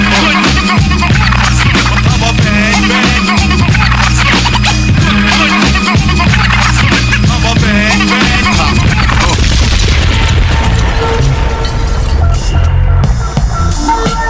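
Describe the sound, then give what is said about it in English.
A DJ, from East New York, Brooklyn, cuts and scratches records over a loud, driving hip-hop beat, the rapid back-and-forth scratches squealing in quick rhythmic bursts throughout, dense with no one talking. “… Cuttin up in here, man.”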